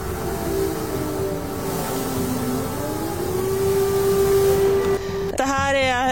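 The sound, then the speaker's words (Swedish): An air raid siren in Lviv wails in a long, steady tone that slowly climbs in pitch, loud and continuous with no talking, before a short, different warbling sound cuts in at the end. “Ja, det som händer nu det är faktiskt att flyglarmet går här i Lviv.”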